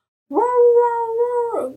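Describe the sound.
A person's voice imitates a dog trying to talk, making one drawn-out, whining howl-like sound that rises at the start and bends down at the end, fairly loud.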